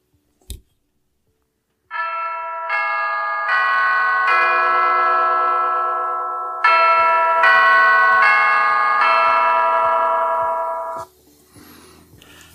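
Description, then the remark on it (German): Big Ben's clock tower bells ring out a slow, resonant chime melody, each note overlapping the last's long ringing decay, loud and sustained, followed by a fading tail and faint ticking. “Das hört sich äh, nämlich so an, das Originalgeräusch von Big Ben.”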